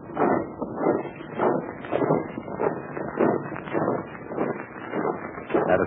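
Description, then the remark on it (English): Many invading soldiers march in step across a bridge over a gorge, a steady rhythmic tramp of heavy footfalls that holds an even, fairly loud pace throughout, with no voices. “The invaders are starting across the bridge.”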